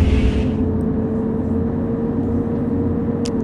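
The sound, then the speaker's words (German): A steady, loud simulated bus engine drone while driving straight ahead, with a low rumble and sustained tonal hum, continuous throughout, with a brief hiss at the start and a faint high click near the end. “Geben wir mal wieder Gas. Der Bus ist schön sauber.”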